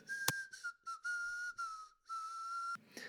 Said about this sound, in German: Ja, entschuldigt mein Gepfeife, aber wer von euch hat es erkannt? Ja, das ist die französische Nationalhymne, die Marseillaise. Ich habe mein Bestes gegeben.